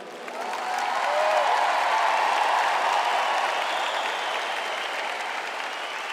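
A crowd breaks into sustained applause, a dense wash of many hands clapping that swells quickly and holds steady at a fairly loud level for several seconds, easing only slightly toward the end.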